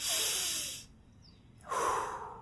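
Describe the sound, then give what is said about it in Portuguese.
An airy deep breath: a long hissing inhale, a brief pause, then a slow breathy exhale starting again near the end. There's no speech, only the breathing. “Agora faz uma respiração profunda.”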